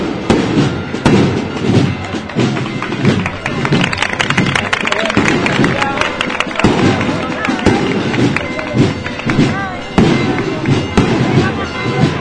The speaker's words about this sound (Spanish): La gente no solo aplaude las maniobras, sino también los fuegos artificiales.